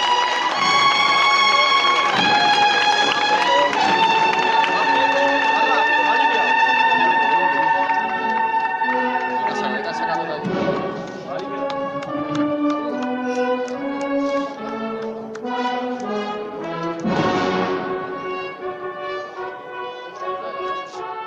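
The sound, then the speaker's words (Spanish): The Santa Cena brotherhood's procession sets out in the Boulevard neighbourhood in the north of Jaén, with a band playing a slow, solemn march of sustained, swelling chords and shifting melody, loud and steady throughout, with no voices heard. “Esos eran los sonidos de la salida de la cofradía de la Santa Cena en ese nuevo barrio del norte de Jaén, en el barrio del Boulevard.”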